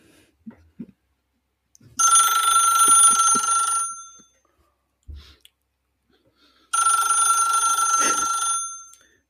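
A telephone rings twice in loud, bright bursts of about two seconds each, separated by a pause, with a few faint clicks and knocks around them and no talking.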